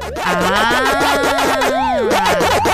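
The Pac-Man (originally Puckman) arcade game character's eating sound as it eats each item: a fast, steady run of looping electronic chirps that sweep up and down in pitch, layered over a sustained wavering synth tone, loud and without speech.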